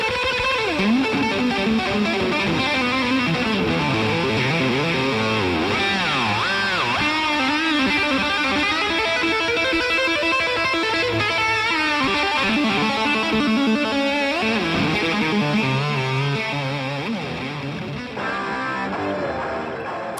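A loud, distorted electric guitar solo played live on the Frankenstretch guitar, with fast bending, swooping notes and rapid runs over a dense, sustained wall of sound, continuing for about twenty seconds without any talking.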